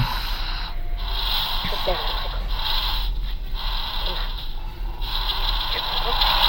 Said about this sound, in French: Lucie, je vous entends très mal. Il y a des grésillements sur la ligne.